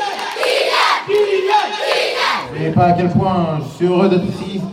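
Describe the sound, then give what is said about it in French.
An enthusiastic crowd in Bondy, France, cheers and chants loudly and continuously as a footballer comes to his former club to celebrate his French championship title won with AS Monaco, many voices shouting together in rising, rhythmic bursts with no pause. “Le vice-président de l'AS Monaco le suit et donc devant euh, eh bien, une, une, foule enthousiaste, il vient euh, fêter son titre de champion de France avec euh, son ancien club.”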